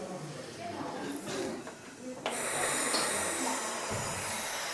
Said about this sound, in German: Und dann atmen wir ganz tief ein, in den Bauch unten, in die Flanken und atmen wieder aus. Puh. Und das machen wir nochmal. Einatmen.